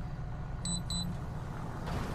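Two quick, high electronic beeps from a tow truck reversing up to a vehicle ring out over a steady low engine rumble, with no voices present.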